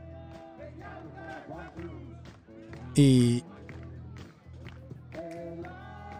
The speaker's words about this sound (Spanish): y toda la gente está aplaudiendo y gritando el nombre del papá para encontrar al, al, al, papá y ahí aparece el señor ya, ¿no?